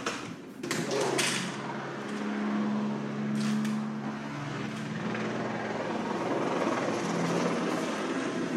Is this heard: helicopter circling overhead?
yes